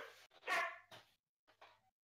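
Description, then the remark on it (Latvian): A dog barks four times in quick, uneven succession, the second bark loudest, then a short pause before a softer final yelp. No one speaks. “Tā, sunis uzbrūk. Jā, tam draugs sarējās.”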